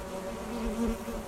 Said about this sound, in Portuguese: Que som é esse? Vocês estão ouvindo? Sim! Zumbido de abelha!